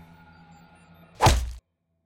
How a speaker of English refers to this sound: How did you teleport that punch to my face without me seeing it?